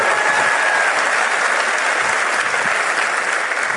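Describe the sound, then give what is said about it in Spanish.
A crowd at a conference applauding steadily for the event's organizers, many hands clapping in a dense, even wash of sound that stays loud for several seconds, with no voices over it. “yo sé que esto es bien complicado de organizar, los eventos y todo, por lo tanto, de un fuertísimo aplauso a sus diamantes”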